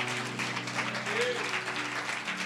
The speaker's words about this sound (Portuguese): Isso aí, aplauda o Senhor, é digno.